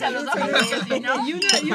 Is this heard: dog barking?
no